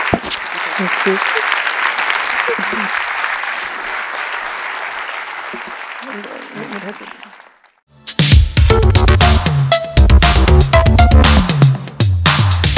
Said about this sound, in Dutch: het is een presentatie, het eh, dus heel graag een warm applaus